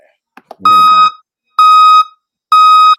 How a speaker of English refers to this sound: It's the uh hit the dump truck again. Hold on. It's probably no. It's probably the dump truck itself that needs to get turned down. Not the okay. Mic. Okay. Because that one just might be hella loud.